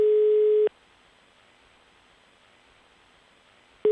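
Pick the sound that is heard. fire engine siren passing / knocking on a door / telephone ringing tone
telephone ringing tone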